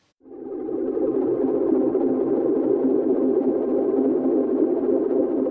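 A tough blues guitar song by a Norwegian-Hungarian-Irish trio plays on the radio, opening with a thick, sustained droning guitar tone that swells in quickly and holds steady and fairly loud throughout, with no voices.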